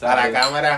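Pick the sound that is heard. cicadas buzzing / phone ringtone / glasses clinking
glasses clinking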